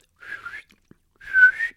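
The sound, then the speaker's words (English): A person whistles two short bursts, the first softer and wavering, the second louder with a rising, steadier tone, with a brief pause between them and no talking. “For yelling, you can um, it can give you vocal nodules so didn't know that so save your voice and buy or learn to whistle so”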